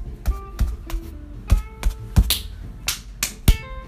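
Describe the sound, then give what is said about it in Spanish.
A hand knocks on a door about ten times in uneven bursts, each rap a sharp thud with a hollow ring. No one speaks. “Perlita de Oro se acercó a la casa y llamó a la puerta.”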